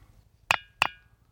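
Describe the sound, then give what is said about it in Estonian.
Two sharp knocks about a third of a second apart, each with a brief bright ringing tail, like rapping on a hard, resonant surface, knocked to make a wish. No one speaks. “oleneb, kui hea koputaja sa oled, kui sa koputamiskogemused ulatuvad aastate taha, siis piisab ühest koputusest küll.”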